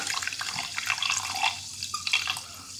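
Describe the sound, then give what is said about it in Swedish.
Sparkling water pours steadily from a bottle into a large glass, a bright fizzing and splashing that bubbles on for a few seconds with no one speaking. “Det porlar härligt.”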